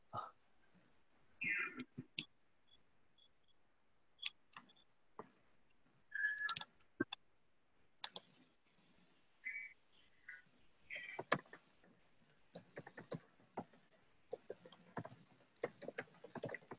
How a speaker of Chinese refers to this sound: 嗯，这位朋友在打字啊，我再等一两分钟。